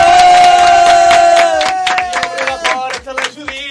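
Loud audience applause for a guest on a Catalan programme, mixed with sustained cheering and whooping from a crowd, with irregular clap bursts throughout and a high, steady held voice cutting above the noise.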